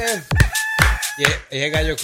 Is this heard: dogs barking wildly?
no